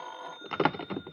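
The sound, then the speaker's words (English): A telephone bell rings in a hotel in a short, rattling burst with rapid repeated strikes, moderately quiet, with no talking. “It was late that afternoon when I got back to my hotel, but before I could use the alcohol on my aching bones, the phone rang.”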